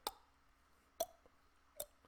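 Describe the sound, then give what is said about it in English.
Three short, hollow plops from a Pop-R popper fishing lure hitting water, spaced unevenly about a second apart, each a quick wet clop with a brief ringing tone, over a quiet background with no talking. “That is my true assumption of why they get so curious about it because not only is it moving, but it's making that clop, plopping noise like something's falling in the water”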